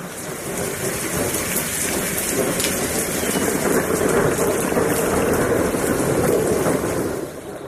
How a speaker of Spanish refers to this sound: Nada más podía oírse fuera de eso, pues la tempestad se ensañaba con fuerza aún más terrible sobre el bosque.